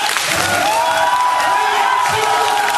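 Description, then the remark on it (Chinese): A loud, steady roar of an audience standing up to cheer for a team captain as he walks from back to front, with overlapping shouts and whoops forming a dense, continuous wash of crowd noise and a few sustained high voices rising above it. “我说上的时候才知道，所有的伙伴就像为欢呼钻石一样，起立为他欢呼。”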